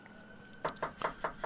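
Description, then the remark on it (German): A quick series of five sharp knocks on a door in New York, evenly spaced and fairly loud, with a faint steady hum in the background. “Warte, warte mal, klopft gerade an der Tür.”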